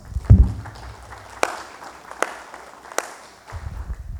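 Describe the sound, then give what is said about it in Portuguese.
A few scattered, sharp hand claps ring out one at a time at an uneven pace, with low rumbling thumps around them; there is no talking. “Palmas para ele. Não, palmas.”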